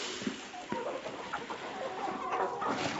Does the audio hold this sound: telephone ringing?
no